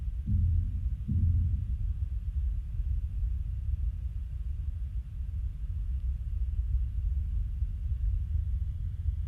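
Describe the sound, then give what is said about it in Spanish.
Outdoors, a child knocks on a playground slide: two dull, booming thuds close together at the start, followed by a steady low rumble with no further knocks and no voices. “Ellos estaban escuchando música y aquí es donde está golpeando el tobogán. Este es el niño que golpea.”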